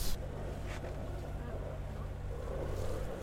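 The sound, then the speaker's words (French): A sailboat motors under engine power on a hot afternoon: the engine drones steadily throughout, a low constant hum with rushing water and wind noise over it, moderately loud, with no breaks. “Bon, on est au moteur.”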